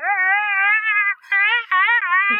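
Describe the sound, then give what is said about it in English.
A voice imitates an eerie wail, a sustained high, wavering howl with slight pitch wobble, broken by two brief pauses into three drawn-out phrases, loud. “So we get out of the car, and then we hear like this eerie wailing”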